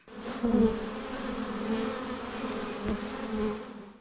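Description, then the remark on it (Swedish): Honeybees buzz steadily for a few seconds, a continuous droning hum that swells and eases slightly as the insects move, with no voices present. “Det ska så småningom kunna ges till honungsbin.”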